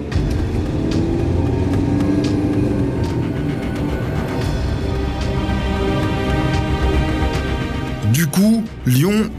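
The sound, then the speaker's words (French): A car, a Volkswagen Passat heading south, drives along the road and is followed by police, with a loud, steady engine and tyre rumble that continues throughout, joined near the end by brief wavering tones. “Et la BRI de Lyon, donc avec Michel Néré qui, qui en était le, le chef à l'époque, suit la voiture qui se dirige vers le sud.”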